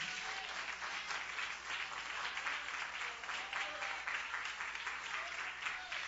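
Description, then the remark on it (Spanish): An audience claps together in a dense, steady burst of applause for Christ that holds at full strength for several seconds, bright and crackling with no pauses. “Dale un aplauso a Cristo fuerte en esta hora.”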